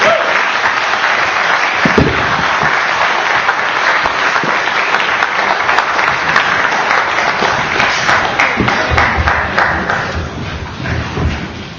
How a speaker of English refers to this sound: Another round of applause.